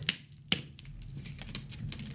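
Two sharp metallic knocks on a capped cocktail shaker about half a second apart, just after shaking a drink mixture, followed by a soft, continuous rattle and swish as it is swirled. No one speaks.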